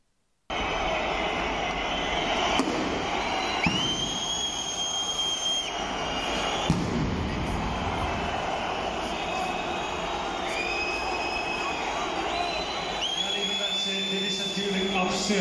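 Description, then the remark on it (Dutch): A dense, continuous roar of a stadium crowd as fans throw fireworks and beer, punctuated by a couple of sharp firework bangs and several rising, whistle-like tones cutting through the noise. “Wilt u stoppen met gooien van vuurwerk en stoppen met gooien van bier?”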